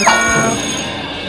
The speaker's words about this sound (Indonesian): Eh eh eh, tahu-tahu udah bel masuk kelas aja.